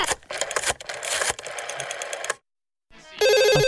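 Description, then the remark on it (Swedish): A busy mechanical rattling and whirring runs for a couple of seconds, then stops; after a short silence, a loud telephone ring bursts in with a bright, pulsing electronic trill. “Alltså, nu ringer han säkert igen, men idag fick han ju ett brev.”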